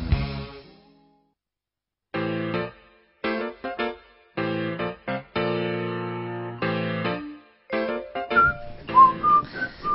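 Someone whistles a bright melody over instrumental music that starts and stops in short bursts, the whistled notes rising clearly above the music toward the end. No one speaks.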